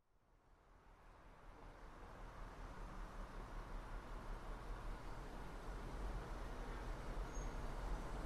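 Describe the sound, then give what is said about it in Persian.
A steady wash of city traffic noise from a traffic jam stretching to Vali Square, with lights at the Hafez and Valiasr intersection, a dense low rumble of engines and road hiss that swells gradually louder over several seconds, with no voices. “باز ترافیک تا خود میدون ولی است باز چراغای تقاطع حافظ و ولی اصر چند نخ سیگار باید بکشم تا ترافیک کوفتی تموم شه”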